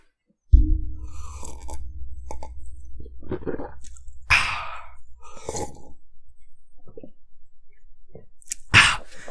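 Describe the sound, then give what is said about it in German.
Someone drinks for ASMR right up against the microphone, with wet sips and swallows, a sharp breathy exhale partway through and another loud one at the end. “Also, ASMR trinken, Augenblick.”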